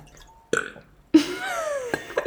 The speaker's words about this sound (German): Ich muss voll rülpsen. Voll geil.